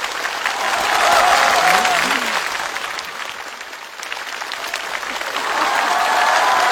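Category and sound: crowd, audience applause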